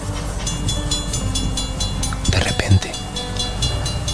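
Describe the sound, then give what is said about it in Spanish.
A train rolls along the rails toward a station with a steady low rumble and a quick, regular clacking rhythm, broken midway by a brief louder jolt and rattle. “el tren fue avanzando, acercándose cada vez más a la estación asignada”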